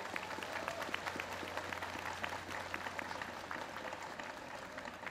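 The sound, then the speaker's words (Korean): An audience applauds the Jeollabuk-do Provincial Gugak (Korean traditional music) Orchestra steadily, dense overlapping claps forming a continuous, fairly loud patter that holds evenly throughout, with a low steady hum underneath and no talking. “박수 크게 치야죠.”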